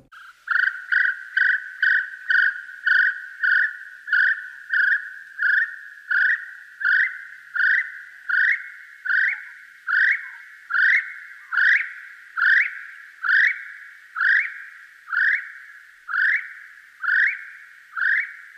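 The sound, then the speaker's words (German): A little spotted kiwi gives a long run of shrill, evenly spaced whistles, roughly two dozen in a row, each note loud and clear, the series creeping slightly higher in pitch as it goes. “Das war der kleine gepunktete Kiwi, so heißt er.”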